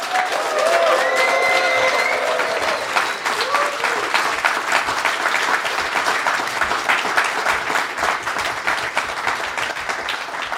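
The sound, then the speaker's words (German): A live audience in Wolfsburg bursts into sustained applause with whoops and cheers, dense clapping for about ten seconds, a few shouted voices rising above it early on. “Macht mal ein bisschen Lärm, dass die, die das hören,”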